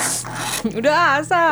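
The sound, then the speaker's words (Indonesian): A short, harsh scraping rasp, like fingernails dragged across a wall, lasting about half a second, followed immediately by someone laughing and speaking briefly. “Kayak kayak kuku ngegaruk dinding itu gitu.”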